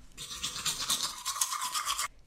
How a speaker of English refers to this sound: Kipper brushed his teeth.